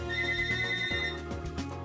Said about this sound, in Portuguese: Enfim, até a hora dessa gravação não foi anunciado, só o telefone do Raul tá tocando.